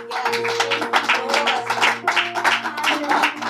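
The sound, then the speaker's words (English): A crowd gives God a hand clap, many hands clapping steadily in a dense, continuous patter of sharp bursts over a low sustained hum, fairly loud throughout. “Can we give God a hand clap?”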